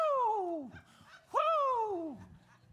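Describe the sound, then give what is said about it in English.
A man imitates a churchgoer running around a church during worship, letting out two loud, excited whoops in quick succession, each a long voiced cry sliding downward in pitch, clear with a brief pause between them. “He gets up out of his chair and he starts running around the whole church, going, Whoo!”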